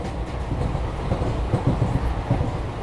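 A train carriage rumbles steadily along the rails, a continuous low roar with faint rhythmic clacks of the wheels, heard from inside the carriage, with no voices.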